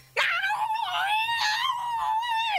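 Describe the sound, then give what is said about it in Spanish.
A person's voice imitates a cat's mating yowl: one long, loud, wavering wail, sliding slightly in pitch for over two seconds before cutting off. “Eso era un gato, era un gato apareándose.”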